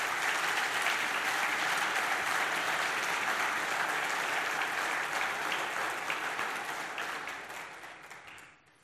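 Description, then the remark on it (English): A crowd claps steadily in a full, loud round of applause to thank 35 people for their work, a dense wash of hand claps lasting several seconds that thins and fades out near the end. “So give them a round of applause and thanks.”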